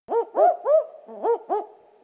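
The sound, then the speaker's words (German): A barking owl, an Australian bird, calls in a run of short, rising-and-falling "wook" notes, about five clear barks in quick rhythm with a brief pause midway, fairly loud with no talking, as heard on a BirdLife Australia CD. “Den Weißbauchflöter oder den Klefferkauz.”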